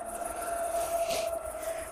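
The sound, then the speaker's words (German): A suburban S-Bahn train approaches and brakes, a steady high-pitched brake squeal holding throughout with a soft rush of noise midway, while crickets chirp continuously over it. No one speaks. “Und die S-Bahn, die jetzt näher kommt und bremst, ja.”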